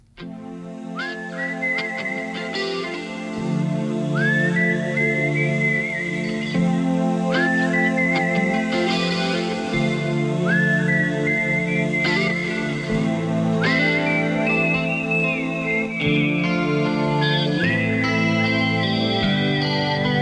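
A rock song opens with a melodic whistled tune, the whistle phrases repeating every couple of seconds over a steady, full band backing at a strong, even level. No one speaks.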